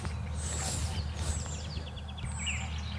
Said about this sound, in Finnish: Tällä joutsenella on muuten aika tehokas lentoääni. Tämä on nimenomaan lentoääni, Joo. mitä me kuullaan tässä.